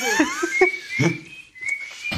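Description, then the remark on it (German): A person whistles a short melody, holding clear, steady high notes that glide between pitches, with a few soft thumps and rustles underneath and no talking. “Herr …, ist Pfeifen musikalisch wichtig?”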